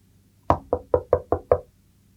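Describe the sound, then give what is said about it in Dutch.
Six quick, evenly spaced, firm knocks by a doctor on the wooden door of a small house in a narrow street, each a short hollow thud. No voices accompany the knocking. “Hij klopte op de deur van het huisje en er werd meteen opengedaan door een vrolijk kijkende vrouw met een baby in haar armen.”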